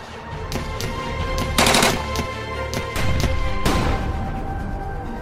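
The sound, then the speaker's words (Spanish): Gunfire from police weapons fired at buses crackles in uneven bursts: scattered sharp shots, then two dense rapid volleys, loud and harsh over a steady low hum, with no voices. “Durante todo el día la presencia policíaca de algún modo había seguido sus pasos, por lo que fueron alcanzados por algunos elementos, quienes accionaron sus armas contra los autobuses.”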